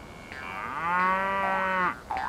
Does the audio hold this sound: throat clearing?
no